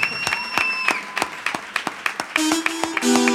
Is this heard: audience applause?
yes